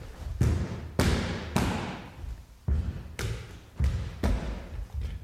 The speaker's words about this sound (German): die Geräusche der Bewegungen auf dem glatten, kalten Boden allein haben mich so richtig gebannt